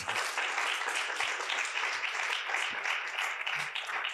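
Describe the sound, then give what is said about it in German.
Steady audience applause at a literary reading in Cologne for author Thomas Pregel, who reads from his novel "Der erste von uns"; a dense wash of many hands clapping at an even level throughout, with no voices standing out. “Einen Applaus für Thomas, der den Text der erste von uns liest.”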